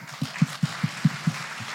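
A short burst of applause: about seven evenly spaced, dull claps in a steady quick rhythm over a soft hiss, fairly quiet, with no voices.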